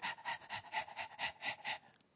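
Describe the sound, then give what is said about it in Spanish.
A dog pants rapidly and steadily, about eight quick breathy huffs in under two seconds, fairly loud, with no other sounds around it. “Y hay alguien que jadea, que es muy amigo mío, que es, un elemental que te por aquí abajo, que lo que ellos hacen”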